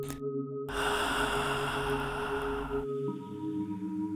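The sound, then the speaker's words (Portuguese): A long, slow, deep inhale and exhale during a guided breathing exercise, lasting a couple of seconds, over a soft, sustained musical drone that continues after the breath fades. “Mais uma vez, inspira, ar para dentro, um pouco mais devagar e profundo, expira,”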